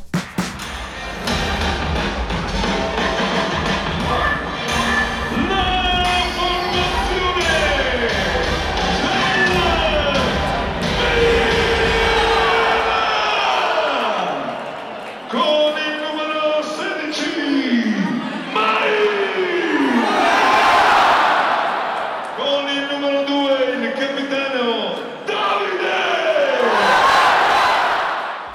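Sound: stadium crowd singing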